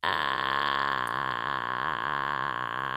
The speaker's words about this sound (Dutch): Dus vocal fry, dat klinkt zo.